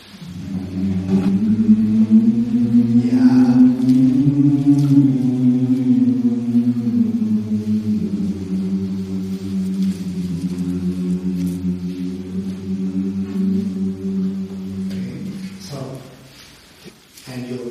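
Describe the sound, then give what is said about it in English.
A sustained closed-mouth vocal hum with a yawning quality, done as a vocal exercise of yawning inside with the mouth closed, held steadily for about fifteen seconds with a gently sliding pitch, fairly loud, then fading briefly before a short new onset. “like you're yawning inside, but the mouth stays closed, right?”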